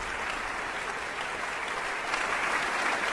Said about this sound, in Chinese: 下面，让我们再次用热烈的掌声欢迎指挥家丹尼尔·巴伦博伊姆，这是他第三次执棒维也纳新年音乐会。